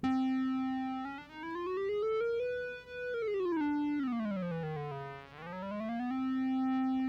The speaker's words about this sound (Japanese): っていう感じでこうピッチを選べたりとかあとこのレトロシンセだとあのねこのオシレーターの波形を2つ選べるって画面なんですよ。